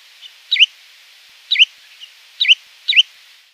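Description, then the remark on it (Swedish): Four short, sharp two-note calls of a spotted redshank, evenly spaced about a second apart, clear and high-pitched against a faint hiss, with a quieter call at the start. “jag har hittat ett, ett, ett ännu mer, vad ska jag säga, tydlig eh, svartsnäpp eh, variant på, på Senocanto”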